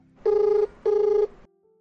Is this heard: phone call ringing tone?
yes